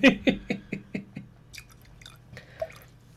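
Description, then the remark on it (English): Whiskey glugs from a bottle into a glass in a quick run of gurgling pulses that fade and slow, followed by a softer trickle and a faint clink, with no talking. “I'm gonna have to pour myself some more of this whiskey.”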